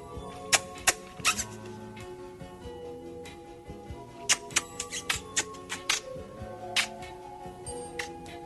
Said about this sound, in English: and uh, yeah, sucks his finger and then realizes there's another sucking sound going on in the room, and uh, and and there he is puckering up this very cute little Audrey 2.